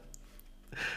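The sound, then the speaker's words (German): A single quiet sneeze: a brief breathy intake, then a sudden hissy, airy burst that lasts to the end. No talking is heard. “Gesundheit.”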